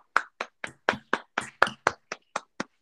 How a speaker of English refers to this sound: Look at us, women. Women are women are doing great. Round of applause for women.